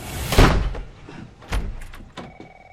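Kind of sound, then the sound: household object, door being pushed open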